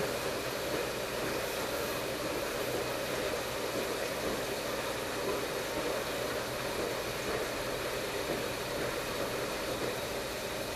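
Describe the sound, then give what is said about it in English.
A washing machine drum turning with water sloshing and tumbling around in the tub while water is still going in, a steady, unbroken mechanical rush and hum that holds at an even level throughout, with no voices. “They can still hear water tumbling around in the tub.”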